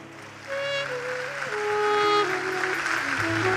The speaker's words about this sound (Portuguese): Você pode dizer amém, dê um aplauso ao Senhor.